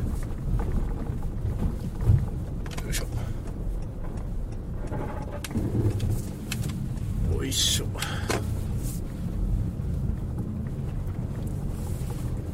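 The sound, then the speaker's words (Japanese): A car's undercarriage grinds and crunches through slushy ice chunks on a residential street turned to slush by a warm day, the car sliding, under a steady engine and road rumble, with several sharp scraping bursts. A man briefly speaks. “めっちゃまっすぐ走れないすごい滑りながらおあ聞こえてますでしょうか道路がザクザクすぎて車の下回りがですねこの氷の塊をガリガリ壊しながら進んでおります”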